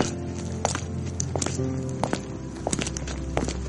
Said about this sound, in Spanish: Y de alguna manera tendrá que recordarme sin querer, escuchando unos pasos en la acera como los míos al atardecer.